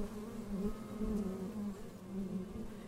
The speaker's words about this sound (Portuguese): Todo meu corpo zumbi, e com o zumbir das abelhas de mel, em minha forma está a força infinita.